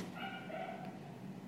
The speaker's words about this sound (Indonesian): Langsung ada anjing menggonggong.